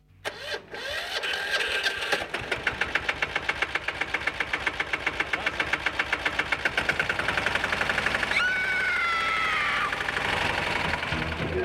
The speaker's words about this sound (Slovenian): E, ja, kaj pa je to? Ja, kultivator.